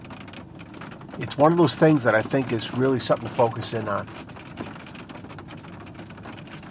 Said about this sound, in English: I'm in the mobile studio right now. It's starting to rain. You know, it is starting to rain. I don't know if you can hear it on here,